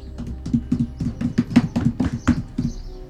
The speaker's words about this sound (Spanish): Otra vez, el joven volvió a batir el aldabón.